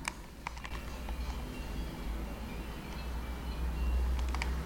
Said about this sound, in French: Donc ça, c'est assez marrant parce que ce qu'on entend beaucoup, c'est du coup des, des cloches de, d'un troupeau de vaches, sûrement. Donc là, euh, voilà, ça doit être la saison des alpages.